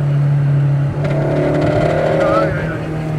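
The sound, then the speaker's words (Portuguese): A car engine drones steadily at close range, then revs higher and shifts as the vehicle pulls away and drives on, loud and continuous throughout. “Diz que ele tá desregulado, hein? Tá sem acerto esse carro.”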